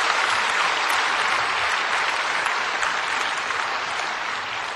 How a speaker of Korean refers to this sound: 우리 박수로 함께 축복하시겠습니다.